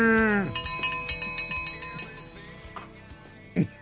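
A cowbell clinks in a quick series of bright metallic strikes, eight or so in a row, ringing and fading out, after a short bleat-like animal call at the start.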